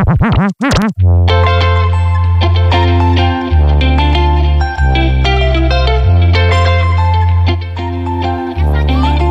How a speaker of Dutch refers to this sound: Zo, je gooit even weer een goede saus overheen, jongen. Ja, letterlijk, man. Zo heet deze beat ook.